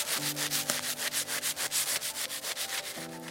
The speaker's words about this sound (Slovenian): Tudi po žaganju se že vidi razlika. Ne? Zgornja plast je bila trša, zdaj ta vmes je žaga kar padla not, zdaj pa gre spet trš naprej.